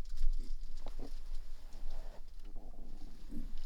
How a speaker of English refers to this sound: I'm sorry, I can hear her messing around with something she's not supposed to be messing around with. It's hard to focus when your dog is destroying your stuff because you never know when it's going to be something you want or need.